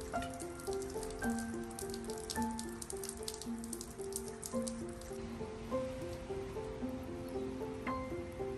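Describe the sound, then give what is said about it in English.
Steady rain patters continuously in a soft, even hiss with scattered drips, while gentle sustained musical tones play quietly underneath throughout. “The sound of the rain”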